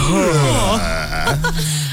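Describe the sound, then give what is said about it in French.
Two drawn-out, groaning yawns from one voice, the first with a wavering, sliding pitch, then a brief pause before a steadier, lower second one. “Alors la deuxième info, c'est sur le oh, le bâillement.”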